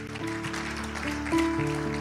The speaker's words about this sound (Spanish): Démosle un aplauso fuerte a nuestro Señor, mis amados hermanos.